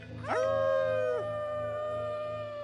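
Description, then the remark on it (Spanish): A person imitates a wolf howl with their voice while telling a scary story: one sustained, rising then steady tone lasting about a second, clear, followed by quiet background. “Y damos un aullido de lobo.”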